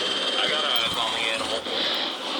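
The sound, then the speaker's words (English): A helicopter roars overhead in a loud, steady, continuous drone of rotor and engine noise that fills the whole short stretch without letting up. “Why is there a helicopter going after the fucking.”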